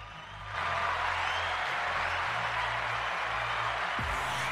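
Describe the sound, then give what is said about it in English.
An audience breaks into applause that swells within the first half second and then holds as a dense, steady wash of clapping until the end, with no one speaking. “Can I get a round of applause for that, please?”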